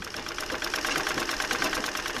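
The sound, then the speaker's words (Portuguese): A century-old treadle sewing machine runs steadily in a home in Oliveira de Azeméis, its fast mechanical clatter ticking in an even rhythm without pause. No one speaks. “A empresária, que nem sabia de costura, recebeu de herança uma máquina centenária e um dia fez uma boneca, depois outra e mais outra.”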